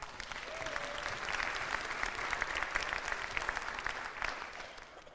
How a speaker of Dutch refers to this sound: Lieve mensen, ik bid en ik dank de Heere voor al deze jonge mensen op de eerste rij die ik vanmorgen zag. Geef ze eens een goed applaus.